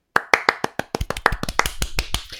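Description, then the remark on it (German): A quick burst of hand clapping for DEL player Patrick Reimer, the first to pass 350 goals, sharp regular claps at first that grow denser and overlapping, like a small group applauding, with no voices over it. “Erstmal Applaus für Patrick Reimer.”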